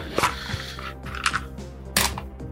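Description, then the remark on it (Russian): A ten-sided die (D10) clatters across a hard surface, rolled to pick one of ten special moves for a game archetype: a few sharp, bright clicks and knocks spaced unevenly over a couple of seconds, with the last hit loudest, and no talking. “И у каждого э, архетипа есть 10 специальных ходов, из которых ты на старте выбираешь один, что можешь тоже кинуть кубик.”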